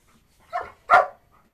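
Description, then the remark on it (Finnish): A dog named Esso gives two short, sharp barks in quick succession during an agility run with weave poles, tunnels and jumps, clear, with a brief gap between them and near silence around them. “joka koiransa Esson kanssa esittelee meille Agility-rataa ja esteitä, pujottelua, tunneleita ja hyppyesteitä.”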